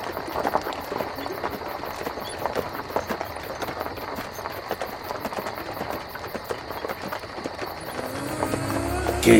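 Hooves clip-clop in a steady, quick rhythm as a horse-drawn cart, driven toward a cemetery after the driver shouts "¡Arre!", rolls along with a dense rattling, clattering layer beneath; near the end a low rumble rises.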